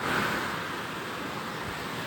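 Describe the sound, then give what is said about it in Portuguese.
A steady, full roar of rushing water fills the whole clip, constant, from a river beside a huge waterfall in Itaipava, at a team retreat at Aldeia Caixa, with no voices. “Então eu tô agora aqui na beira desse rio e tem tipo uma mega cachoeira ali do lado.”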